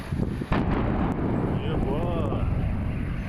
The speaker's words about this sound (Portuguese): Pelo menos 13 pessoas ficaram feridas depois de uma explosão em um posto de combustível na Rússia. Essa imagem, feita por um motorista, mostra o momento da explosão. Foi possível ver a bola de fogo a quilômetros de distância.